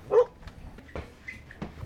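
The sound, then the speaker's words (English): Farm dogs bark at the Sun Ranch in Cameron, Montana, during a blizzard as people come through the gate: one sharp, fairly loud bark, followed by a few fainter, scattered barks, with no one talking. “Farm dogs bark, and a couple of horses in the corral look up as we come through the gate.”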